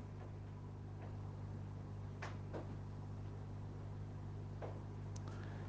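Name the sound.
door being closed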